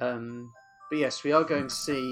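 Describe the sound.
A mobile phone ringtone plays a short, thin electronic melody, fairly quiet, sounding in a pause and continuing faintly beneath a man's speech.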